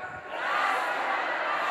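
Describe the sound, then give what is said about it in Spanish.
A large crowd shouts "gracia, gracia" together in a sustained, loud roar of voices, a dense wash of group yelling that swells quickly and holds steady, with no single voice standing out. “Di, yo declaro el 019 con mis gritos de gracia, Pero en verdad grítenlo.”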